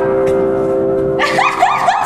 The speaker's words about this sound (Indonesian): Hai guys, sorry ada bel.